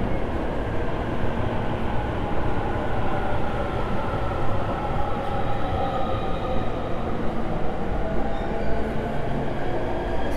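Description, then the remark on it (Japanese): An electric train pulls into a station platform in Japan with a loud, steady rumble of wheels and motors filling the whole stretch, a faint high whine riding on top and no voices. “さあちょうど電車来たラッキー”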